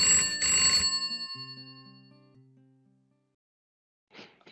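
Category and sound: signal or alarm, telephone bell ringing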